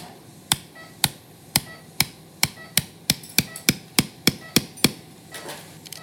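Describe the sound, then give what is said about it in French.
A small surgical hammer strikes about fifteen times in a steady, slightly quickening series of sharp taps, inserting a bone anchor into a tunnel on the medial edge of the arm during elbow ligament repair, with no talking and only a faint background hum between the blows. “Dans ce tunnel, je vais placer une encre que je vais insérer au marteau.”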